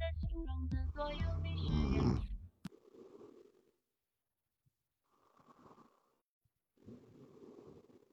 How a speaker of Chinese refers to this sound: 他刚刚打了个呼噜，老响了，你们听到没有？我一停下来，他就不打了。